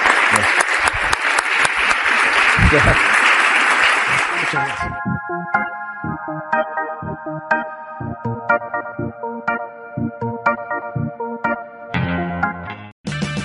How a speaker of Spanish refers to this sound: Bueno, principalmente muchísimas gracias a todos por haber venido y pido un fuerte aplauso para